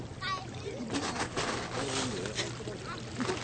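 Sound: water splashing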